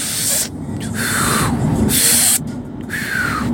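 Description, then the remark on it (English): Audible breathing, a loud airy hiss of a breath in and out repeated a few times in an uneven rhythm, with short pauses between the breaths and no talking. “But every day you wake up and you take a breath, right? In and out.”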